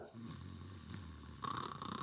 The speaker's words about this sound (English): that is the sound effect of somebody snoring in a deep, deep sleep.